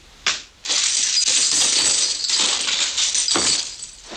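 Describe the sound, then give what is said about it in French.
Gold coins clinking and jingling continuously as Montand stirs them in a film scene, a bright, dense shimmer of chinks after a brief opening clatter, with no voices. “Ah, ben ça alors rien qu'au son des pièces, il arrive à mm. savoir qu'il lui en manque une.”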